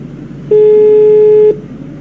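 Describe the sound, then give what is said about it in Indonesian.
A single steady telephone call tone sounds for about one second as a call is being placed, loud and clear over a faint low background hum, with no voices. “Coba nih kita telepon dulu ya. Telepon. telepon nih. Bentar, bentar. Nah, ini nadanya nih.”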